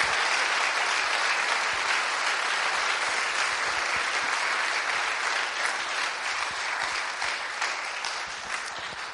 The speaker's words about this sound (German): Applaus